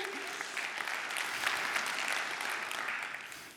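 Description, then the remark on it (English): A crowd claps steadily for a few seconds, a dense, sustained wash of applause at moderate volume with no talking over it, easing off slightly toward the end. “How come you're not cheering?”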